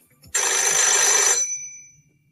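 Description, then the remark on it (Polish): A single loud burst of a telephone ringing, a bright metallic bell trill lasting about a second before cutting off with a short fading ring, heard alone with no talking. “Kiedy więc tydzień temu powiększyła im się rodzina, byłem pierwszą osobą, do której zadzwonił.”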